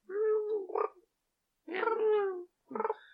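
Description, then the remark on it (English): A voice imitates how an axolotl might sound, like a kitten's soft mew with a gurgly, bubbling wobble, as if underwater: three short calls with brief pauses between, the last one clipped and burbling. “I'm imagining the sound of a ki- of a kitten doing a little mew, but like underwater.”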